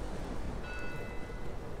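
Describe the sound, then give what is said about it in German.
A church bell in Kirchdorf strikes once and its faint ringing tone lingers beneath a steady roar of storm wind and rain. The storm noise dominates, and the bell sounds muffled. “Da vernahm er durch das Getöse des Sturms eine Glocke.”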